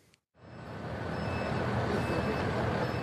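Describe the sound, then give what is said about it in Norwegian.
Several buses drive up to the harbour on Lesbos, Greece, at dawn before sunrise; after a brief near-silent gap their heavy engines rumble steadily, a broad low drone building quickly and holding at a moderate level. “Det begynner å lysne, men sola har ennå ikke stått opp når flere busser kjører fram til havna på Lesbos.”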